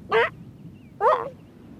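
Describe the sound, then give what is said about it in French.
A very young elephant seal pup, seemingly hungry, gives two short, nasal, yelping calls about a second apart, fairly loud over a low, steady background rumble. “C'est un tout jeune éléphant de mer.”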